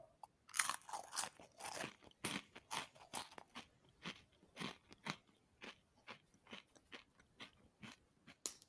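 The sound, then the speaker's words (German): Crisp crunching of a sesame puff-pastry cracker stick being bitten and chewed in a guessing game, a burst of loud crackly bites at first, then steadier rhythmic chewing crunches that gradually soften, with no talking. “Es ist ein Cracker.”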